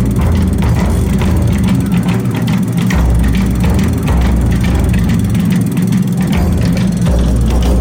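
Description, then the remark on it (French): Festival floats carrying small children roll past with a steady mechanical creaking and ratcheting, rapid clicks repeating over a loud, constant low rumble, with no voices. “C'est impressionnant, ils sont sur des chars.”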